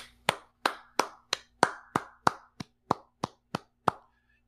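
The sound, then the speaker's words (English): A single person claps about a dozen times at a steady, fairly quick pace, starting a clap for the wrestler Dolph Ziggler, each sharp clap ringing out briefly before the next, with no talking in between. “Let me start a clap for Dolph Ziggler.”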